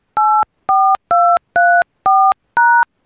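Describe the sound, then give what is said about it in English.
Six crisp telephone keypad tones beep in steady succession, each a short two-note electronic chirp with brief gaps between, as a PIN is dialed into the Blog Talk Radio phone line. Loud, with no voices. “I'm this sorry, but I did not hear you press at least four digits of your PIN number.”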